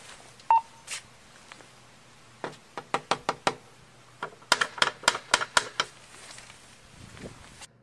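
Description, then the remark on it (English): Two quick bursts of sharp knocking, each a rapid run of raps on a hard surface, clear, with a brief electronic beep just before and no talking. “So double knock.”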